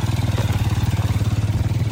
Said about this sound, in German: Vorbei an einer Schule verlasse ich Muang Noi. Vereinzelt begegnet mir auf dem rot-goldenen sandigen Boden ein Traktor.